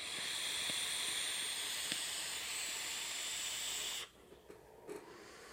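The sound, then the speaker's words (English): A vape being pulled on a 22 mm Dead Rabbit single-coil atomizer with an alien coil gives a steady, bright sizzling hiss for about four seconds, with a few faint crackles, then cuts off abruptly into near quiet with small soft ticks. “Let me have a couple more pulls here.”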